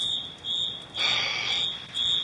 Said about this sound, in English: Uh, the fire alarm might be going off in a few seconds here in my room. Why? The smoke detector. Why? Oh, there it goes.